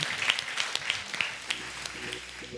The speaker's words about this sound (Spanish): Dale un fuerte aplauso a su Dios en el día de hoy.